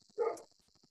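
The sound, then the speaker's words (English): A single loud dog bark rings out, harmonic and slightly muffled, from dogs outside the window, followed by faint scattered yips over a steady high-pitched hiss. “Well, I let the dogs out, and the dogs like to uh, bark right outside the window where I'm recording.”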